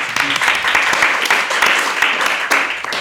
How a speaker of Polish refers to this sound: I od razu słychać, że dużo osób klaszcze.